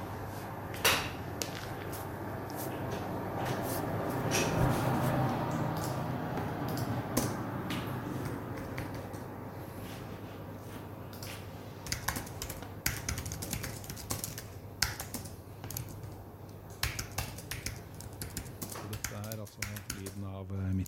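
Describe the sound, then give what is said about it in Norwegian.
Steady office ambience in a workplace with a window open on a warm day, a constant air-conditioning hiss and low hum, scattered keyboard typing clicks, and faint indistinct voices murmuring in the background as people work on the floor above. “Herregud, du slapper av du merker at det er litt sånn susing i bakgrunnen og aircondition.”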